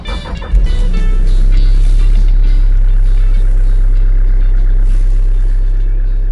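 Steady, loud low rumble of a car engine and road noise from inside a moving car driving about an hour from home in the early morning to a marathon event in a town in northern Kumamoto Prefecture, Japan, with a deep droning hum throughout and no one speaking.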